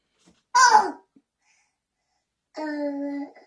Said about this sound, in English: hear the young one in the background. It's my co-host for the day,